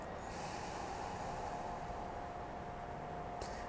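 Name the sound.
slow exhale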